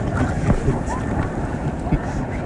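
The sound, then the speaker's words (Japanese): Large ocean waves churn and slosh around a person swimming in the sea off Hawaii in the early afternoon, above 30 degrees, in a steady, loud wash of water, with gusty wind buffeting the microphone throughout. “まあ実験的にはどの程度音が伝わるのかこれ波でかい”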